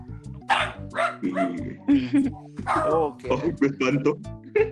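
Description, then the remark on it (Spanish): A dog barks repeatedly in quick, uneven bursts, mixing sharp yaps with high, drawn-out whimpers, loud and going almost continuously for several seconds. “Ese perro tiene hambre.”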